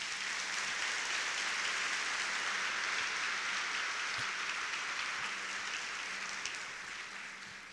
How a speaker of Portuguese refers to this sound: E a igreja diz: Amém. Aleluia. Aplauda Jesus por isso.